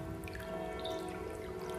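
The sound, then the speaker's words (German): Steady water dripping and trickling in an echoing underground vault where water stands about 1 to 1.2 metres high behind a parapet, with scattered soft drops over a constant low hum, fairly quiet and continuous with no voices. “Kommt äh, über mehrere Treppen hier hinunter durch einen kleinen Gang und steht dann vor einer Brüstung, hinter der sich vielleicht ein Meter, ein Meter zwanzig hoch das Wasser staut.”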